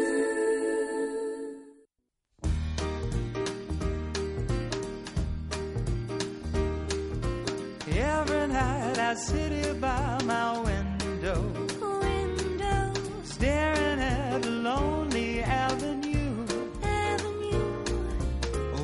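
A pop song plays loudly after a brief opening sound and a split-second gap: a steady bass and drum groove, then a singing voice carrying the melody over the full band.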